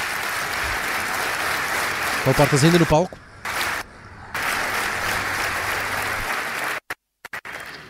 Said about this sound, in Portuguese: Continua esse aplauso de pé, muito, muitos sorrisos no rosto de uh, uh, Luís Montenegro e de Nuno Melo.